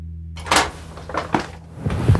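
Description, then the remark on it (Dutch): An old man opens his front door, with a few sharp clicks and knocks of the latch and handle followed by a soft thud, over a low steady hum and no talking. “De oude man staat op en loopt langzaam naar zijn voordeur toe.”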